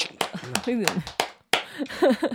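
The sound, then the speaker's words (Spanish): About five sharp hand claps land at an uneven pace, fairly loud, while voices talk and exclaim over them. “Ya por fin somos consistentes. Ya. Aplaudele carajo!”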